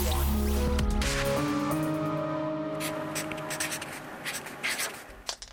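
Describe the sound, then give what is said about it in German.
Scratchy pencil strokes scrape across paper in short bursts as someone does homework with a new pencil, with a low hum underneath and a few sharp clicks near the end as the pencil lead breaks. “So geht doch die Mine von deinem schönen neuen Stift kaputt.”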